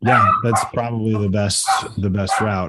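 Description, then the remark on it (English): A dog barks in short, loud bursts that overlap a person talking, the barks mixed in with and partly buried under the steady speech. “that was my dog Boxer endorsing the two of you working together”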